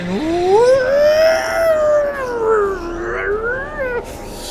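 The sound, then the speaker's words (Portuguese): An eerie, drawn-out wailing cry of a soul, heard as a portal opens, slowly rises and falls in pitch for about four seconds, loud, with no voices or other sounds alongside it. “E aí vocês vêm abrindo um portal e aí vocês escutam esse barulho de alma,”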